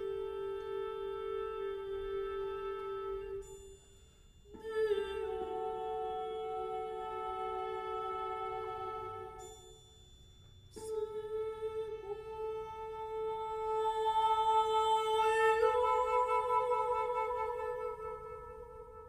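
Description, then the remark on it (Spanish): Orchestral music from Juan Trigos's Cantata Concertante No. 3, Fos Larón Soliloquio, performed by the Orquesta Sinfónica de la Universidad de Guanajuato, with a soprano holding long, sustained high notes over rich harmonies, broken by two brief pauses and swelling louder toward the end. No one speaks. “Al fondo estamos escuchando Cantata Concertante número 3, Fos Larón Soliloquio, del disco de Juan Trigos con la Orquesta Sinfónica de la Universidad de Guanajuato,”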